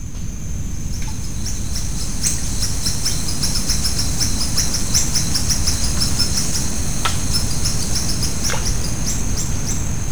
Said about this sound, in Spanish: Buenas tardes, pues lo que escuchamos es ni más ni menos que un paisaje sonoro de las selvas de México.